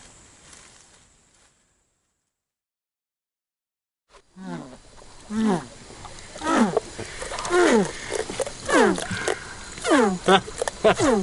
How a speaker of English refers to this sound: That's the sound of a red tailed catfish, banana fish. They go like stink. This guy, most beautiful fish. They, fight like like nothing on earth. I've just got this one out, we're going to put it back in a minute